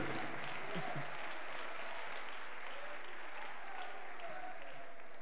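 A church crowd claps steadily for several seconds as praise to the Lord, a dense, even patter of many hands, with faint voices and cheers mixed in underneath.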